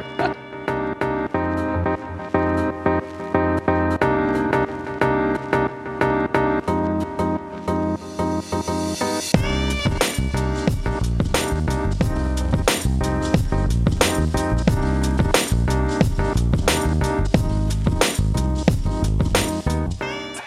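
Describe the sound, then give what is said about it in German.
A lively instrumental music jingle by a band plays on its own for about twenty seconds, with steady rhythmic beats and layered tones that grow fuller and brighter partway through. “nach einem kleinen Einspieler der … kommt dann gleich der zweite Impuls”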